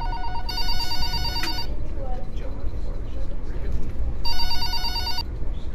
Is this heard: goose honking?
no